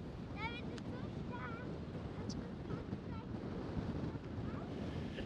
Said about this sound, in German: Der Wind ist heute recht stark, das stimmt. Lass dich nicht hier runterwehen.